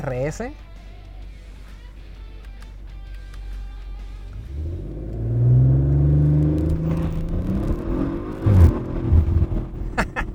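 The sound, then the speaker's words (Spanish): A sports car's exhaust idles with a low rumble, then revs hard in deep, rising roars that swell loud for several seconds, with a brief voice at the very start. The car is set to RS mode. “voy a bajar el vídeo a ver si se alcanza a escuchar el escape, que está increíble.”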